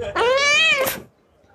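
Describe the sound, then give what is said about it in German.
A single loud meow from a cat sitting on the counter of a pawnshop, drawn out for about a second with a rising then falling pitch, followed by near silence. “Ähm, ich möchte über diese Katze sprechen.”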